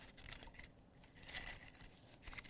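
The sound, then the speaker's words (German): A slip of paper held in the hand being rustled, with continuous crisp crinkling and a few brighter bursts of handling noise, fairly quiet and with no talking. “ich behalte den Zettel trotzdem in der Hand, aber ich raschel jetzt einfach.”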